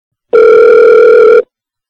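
A single loud, steady telephone dial tone hums for just over a second as a call is placed for a phone interview, then cuts off abruptly, leaving silence. No voices are heard.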